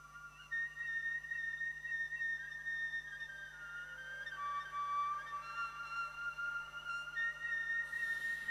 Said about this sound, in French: un morceau de flûte cavale. Et pour vous, un moment mystique de plus